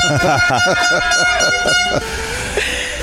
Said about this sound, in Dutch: Die hebben ze een toeter gegeven. Hadden ze natuurlijk nooit moeten doen.